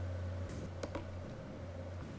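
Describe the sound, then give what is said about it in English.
A couple of soft, quick keyboard clicks tap close together against a steady low electrical hum, with no talking. “typing something, but I'm ignoring.”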